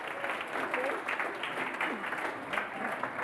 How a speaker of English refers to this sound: So perhaps uh, we could give these guys a round of applause quickly. Thank you for joining me.